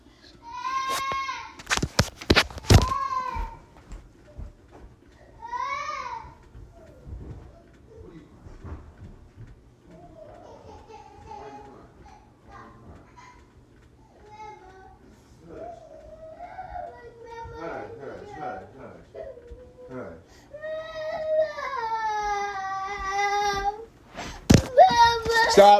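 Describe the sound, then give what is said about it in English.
A young child fake-cries and yells in wavering, whiny wails that rise and fall, with bursts of louder crying near the end over a faint background. “Uh, that fake crying.”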